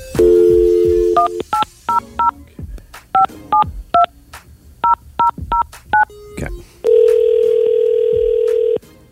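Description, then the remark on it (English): A phone call being made: a dial tone hums, then a quick series of touch-tone beeps punches in a phone number in short bursts, ending with a steady ringback-style tone. Clear, with no talking. “However, the first person made a phone call and it sounded a little bit like this.”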